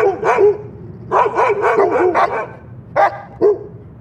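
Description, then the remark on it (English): Several dogs bark in bursts, a flurry of overlapping barks followed by a pause and two more sharp single barks, loud with no talking. “How is a man supposed to concentrate on his Tolstoy with you lot making that racket?”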